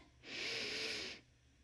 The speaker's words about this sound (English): So here you go. You take a big deep breath in.